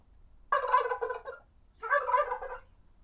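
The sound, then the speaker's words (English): A turkey gobbles twice in quick succession, each call a loud, rapid, warbling burst lasting about a second, with a short quiet gap between them and no talking. “Uh, that is a uh, that is a turkey.”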